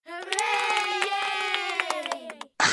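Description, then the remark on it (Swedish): A short burst of applause, scattered sharp claps under a sustained cheering tone from a crowd, steady and fairly loud for a couple of seconds before cutting off abruptly. “Heinen applåd ungefär nu.”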